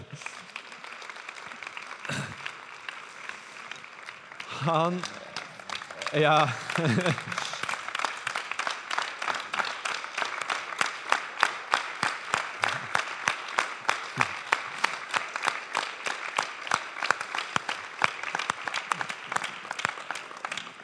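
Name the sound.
audience clapping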